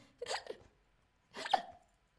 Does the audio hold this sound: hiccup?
yes